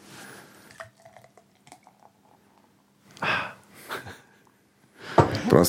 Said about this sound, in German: Mit diesem Geräusch wollte ich mitnehmen. Ich hoffe, man hat es ein bisschen gehört, das Einschenken des Biers. Wenn nicht, dann mache ich es nochmal explizit.